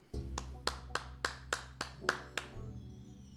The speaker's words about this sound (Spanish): Un aplauso, un aplauso.